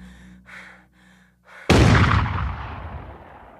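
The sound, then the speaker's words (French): A few strained, gasping breaths from a wounded woman, then a single loud shotgun blast, the final shot in a killing, that cracks sharply and rumbles away in a long, fading echo. “Un dernier tir qui achève”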